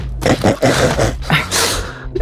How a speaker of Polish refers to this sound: Przestań psie, to jest wege! Zaszkodzi ci! No poważnie ci mówię.